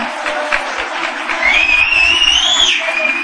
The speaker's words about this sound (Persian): این آقا سه تا انگشتش یا دو تاشو گذاشته تو دهنش داره سوت میزنه من بهش میگم که توی جوون حیف دهنت گشاد میشه نمیخواد انگشتات دهنت بکنی شما همینجوری هم میتونی سوت بزنی